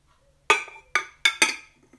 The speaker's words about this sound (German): So. Die Kanne ist jetzt wieder leer. Ich tue den Teeaufsatz wieder drauf.